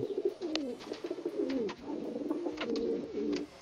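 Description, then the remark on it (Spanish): Several pigeons coo continuously, their soft, throaty warbling overlapping in a steady murmur, with faint rustles and brief clicks mixed in. “Este era unas palomas.”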